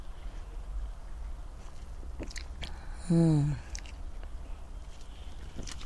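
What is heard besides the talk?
sipping a drink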